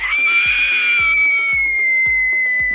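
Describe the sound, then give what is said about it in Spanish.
An imitation of a loud, shrill, high-pitched feminine scream let out in a cinema when Superman appears in the film Black Adam, held for nearly three seconds without a break, over a steady, rhythmic low thumping beat. “salió un grito femenino”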